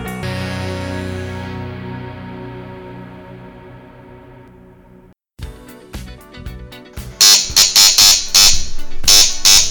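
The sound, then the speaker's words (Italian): An intercom door buzzer, rung by an arriving guest, drones in one long, harsh, steady tone for about five seconds, slowly fading, before loud rock music with pounding drums and crashing cymbals abruptly takes over. “la riconosco dal, dal citofono.”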